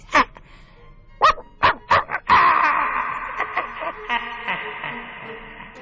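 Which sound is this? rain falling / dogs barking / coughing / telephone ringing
dogs barking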